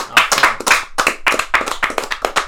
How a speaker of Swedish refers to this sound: Woo! Woo! Applåd!